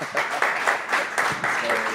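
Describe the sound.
An audience applauds, a dense, steady wash of many hands clapping that holds at an even, fairly loud level throughout, with a few voices calling out underneath.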